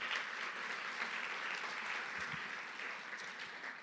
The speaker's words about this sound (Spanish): ¿Cuántos dicen amén? Dale un aplauso al Señor, amén.